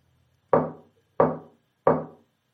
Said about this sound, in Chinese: 敲我们窗户上面那个木框子。我大声说：“谁谁谁谁谁谁敲的？”没人吱声。又过了两三分钟，又开始了。